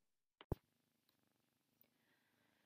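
A small ginger cat named Gaïa purrs steadily on a person's lap, a soft low rumbling that runs throughout, just after a couple of sharp bumps at the start. No one speaks.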